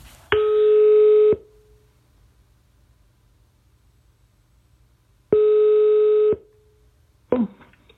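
A telephone ringing tone: two steady, mid-pitched beeps, each about a second long and spaced several seconds apart, over a faint hum, followed by a brief clatter at the end.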